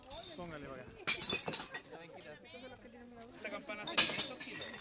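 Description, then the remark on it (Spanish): Glass bottles clatter and clink into a neighbourhood glass recycling bin in the Francisco Mesa Seco neighbourhood on a Saturday, in two sharp, bright bursts, with people talking indistinctly in the background between the crashes. “RECICLAJE DE VIDRIO”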